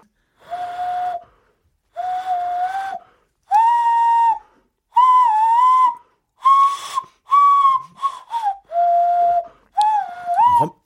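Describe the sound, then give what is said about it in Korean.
A breathy, hollow hand whistle blown through cupped hands plays a slow tune of about eight sustained notes with short gaps, fairly loud, with no talking. “자, 이거 지금 손으로 부른 손필입니다.”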